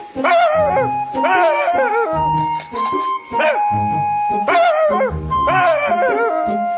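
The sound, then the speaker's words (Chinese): Dogs bark loudly at night in repeated overlapping bursts, a few yelping, high-pitched barks at a time with short pauses, while a thin steady ringing tone runs underneath. “这里晚上狗很多，小心一点哦。”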